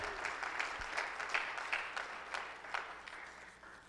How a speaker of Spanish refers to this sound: Denle un aplauso fuerte a Dios, hermano.